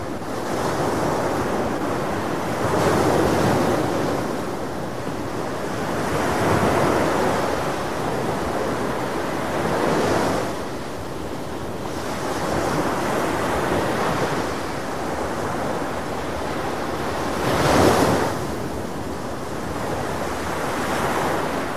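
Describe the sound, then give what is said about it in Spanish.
Ocean waves at Miramar roll in and break on the shore in a steady rhythm, with surges swelling every few seconds over a constant wash of surf and some wind buffeting the microphone. No voices. “Te regalo, te regalo un poquito de sonido de mar, ahí va, a ver.”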